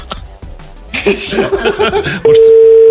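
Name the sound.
telephone dialing tones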